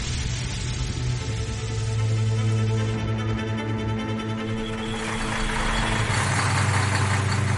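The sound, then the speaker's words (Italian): Trucks of an SS unit idle steadily around the lanes of the Portico d'Ottavia at dawn on a grey, rainy 16 October 1943, a deep continuous rumble with a throbbing low hum that grows slightly louder and rougher toward the end. No voices are heard. “dei camion si appostano intorno ai vicoli del portico.”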